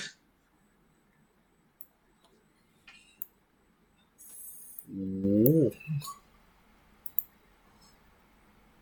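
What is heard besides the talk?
ice cubes clinking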